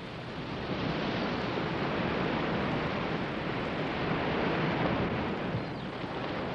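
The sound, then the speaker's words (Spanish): Steady rushing river water fills the scene, a dense, even wash of flowing noise that stays at a constant level throughout with no voices or other sounds. “Ya casi para llegar a la choza de la abuela, Caperucita Verde se detuvo junto a un río para cortar orquídeas, desobedeciendo a su mamá.”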